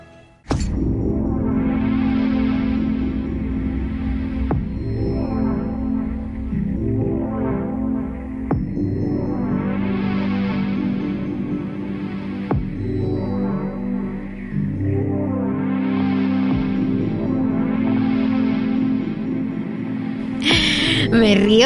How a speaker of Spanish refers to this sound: porque esta música que están escuchando la escuchamos por primera vez, primicia universal